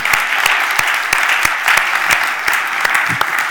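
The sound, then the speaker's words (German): An audience at a church service applauds the worship team after the worship time, steady dense clapping with sharper individual claps standing out throughout, no voices heard. “Applaus für euch, das war spitzenmäßig.”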